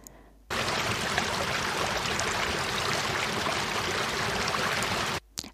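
A steady rush of flowing river water, dense and fairly loud, runs unbroken for about five seconds on its own, starting and stopping abruptly with no voices.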